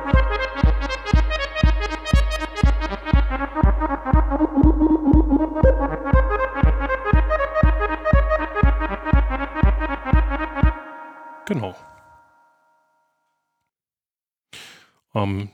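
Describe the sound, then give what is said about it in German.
A classic synthesizer sequence of rapid, evenly pulsed notes, each with a bright filter sweep modulated by the envelope that shapes the note, playing for about ten seconds before stopping, followed by a couple of brief noisy bursts. “ich greife diese Hüllkurve ab, die meinen Ton bestimmt und moduliere damit wieder den Filter. Ja, und da haben wir dann so einen klassischen Synthesizer”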